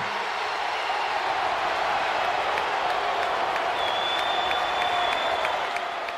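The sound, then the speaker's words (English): A large wrestling arena crowd roars continuously during a segment with Hulk Hogan and Mean Gene, a dense wash of cheering and scattered clapping at steady loudness, with a high whistle cutting through near the end. “Mean Gene, the first thing you need to do is to tell these people to shut up if you want to hear what I got to say.”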